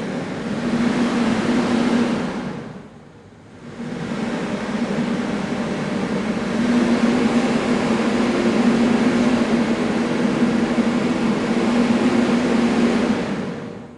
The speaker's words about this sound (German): In der Mitte steht eine hohe, runde, durchsichtige Vitrine, eine Art Litfaßsäule. Der Besucher drückt auf den Knopf und es löst sich ein Sturm in dieser Luftlitfaßsäule aus und wirbelt das Laub durch die Luft.